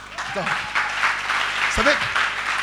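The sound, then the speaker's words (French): An audience breaks into sustained applause and cheering, a dense steady wash of clapping with scattered voices shouting and calling out over it throughout. “Ça, ça met de quoi des acclamations.”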